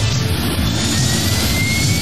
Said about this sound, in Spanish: Vuelta Ciclista en Antena 3. Un gran despliegue de medios. Helicóptero.